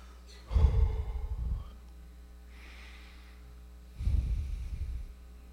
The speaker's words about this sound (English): I'm breathing in air. That's my life. I'm blowing out this sickness.